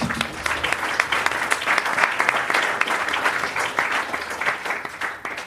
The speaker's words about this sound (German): Ich sage auch gleich, was ihr macht, aber erstmal einen Applaus, dass ihr da seid.